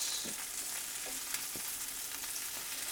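Sausages sizzle steadily in a hot pan, a continuous bright crackle with scattered small pops and spits, fairly quiet, with no one talking.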